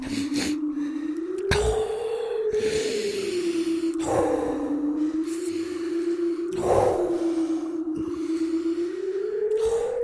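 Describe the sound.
Loud, heavy snorting breaths repeat every second or two over a steady low droning hum, each puff a rough, noisy burst of air with no talking: a person blowing breath onto another person's face to warm him.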